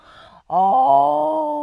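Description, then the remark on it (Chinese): A person reading a children's story aloud imitates the lion in the story roaring: one long, loud, drawn-out growling cry at a steady low pitch, following a brief softer breath and a moment of silence. “狮子看看小朋友，看看说故事的阿姨，看看合起来的书，开始大吼”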